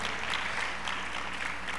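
A crowd applauds steadily, a dense crackle of many hands clapping at once that holds an even level for the whole moment with no voices standing out.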